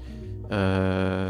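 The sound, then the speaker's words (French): Background music from a person's own video game plays on its own: bright, sustained synth tones, soft at first, then swelling into a louder, fuller chord that holds steady. “Ah, c'est la musique de ton jeu, ok, très bien.”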